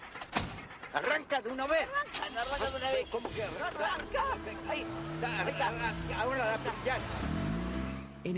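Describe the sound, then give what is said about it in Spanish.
A car engine labors to start, sputtering low and uneven under overlapping voices, then catches and revs upward near the end. “auto de Elsa al que cuesta poner en marcha.”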